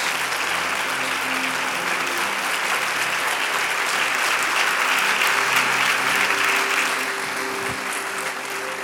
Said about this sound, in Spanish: ¿Cuántos dicen amén? Póngase de pie, de un aplauso fuerte al Señor. Gracias, Señor. Gracias.